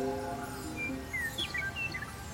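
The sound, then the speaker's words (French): Birds singing in a garden: a handful of quick, high chirps and whistles in the second half, fairly faint and set against a steady low background hum, with no one speaking. “En plus, il y a le chant des oiseaux depuis tout à l'heure, on a rêvé.”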